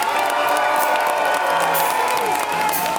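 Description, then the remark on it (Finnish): Loud, continuous applause from an audience with cheering and whoops, a dense steady roar of clapping and shouting voices sustained throughout. “Kuulosti ihan siltä, niin kuin haluaisi Charles Ross, koska se saa aina tommoset aplodit.”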